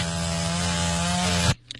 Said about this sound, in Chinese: 我们学校的女老师都会使用电锯，那就像我们食堂柴多的时候啊，或者是师傅忙不过来的时候，我们都会拿电锯给他打把下手啥的。